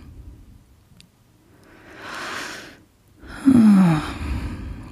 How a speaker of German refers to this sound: Das kann man auch ganz schön so tagsüber immer mal wieder so ein kurz machen, dieses ja, sich sich einen Moment nehmen und einfach versuchen tief und langsam zu atmen.